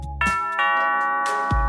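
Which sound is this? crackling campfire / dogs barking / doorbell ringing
doorbell ringing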